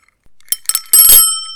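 A bell rings alone: a few quick bright dings, then a fuller high-pitched ring that sustains with a shimmering metallic tone before slowly fading out.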